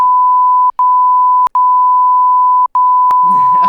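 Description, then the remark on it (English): A steady, high-pitched censor bleep drones on for over three seconds, cutting out briefly three times like a stuttering tone, before a voice starts talking underneath it at the end. “we, we gotta bleep. We gotta bleep all of those out.”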